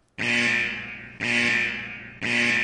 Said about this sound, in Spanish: Más que Arturito suelte su alarma.